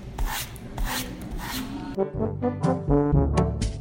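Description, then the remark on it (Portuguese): Brisk, rhythmic scrubbing, several quick back-and-forth strokes close up, as if brushing a surface hard, then giving way to a louder tonal, musical sound in the second half. “Nossa história começa com Dona Joana limpando sua casa.”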